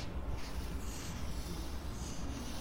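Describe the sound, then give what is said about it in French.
A felt-tip marker slides steadily across paper as a caricaturist draws a caricature in Tunis, a soft, continuous scratchy rustle heard quietly, with no voices, in a calm, bright place with white walls. “On entend à peine le feutre glisser sur la feuille.”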